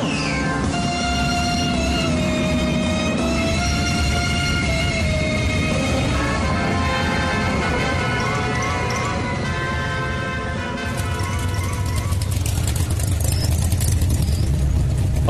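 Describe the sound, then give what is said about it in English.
The Mach 5 race car's engine roars steadily as it drives around a racetrack, its loud whining drone sliding up and down in pitch, then shifting to a rougher, lower growl near the end. “Driving around the racetrack in the Mach 5 is an amazing experience.”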